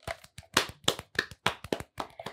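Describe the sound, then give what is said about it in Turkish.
Applause in the form of about nine loud, sharp claps in a quick, slightly uneven rhythm, crisp and separate rather than a continuous roar, with no voices. “Alkışları göreyim.”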